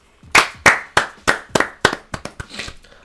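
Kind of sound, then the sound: crowd, group clapping hands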